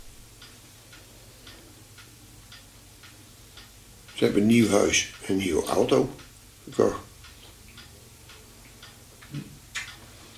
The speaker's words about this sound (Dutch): Soms is het tikken en slaan van klokken hard, maar soms ook zacht en subtiel.